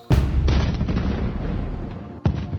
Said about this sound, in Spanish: Una explosión me despierta.